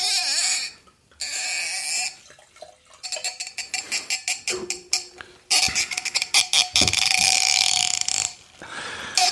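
A cork is worked out of a bottle, with loud, rubbing squeaks and creaks coming in uneven bursts and a dense, grinding squeal toward the end. No one speaks.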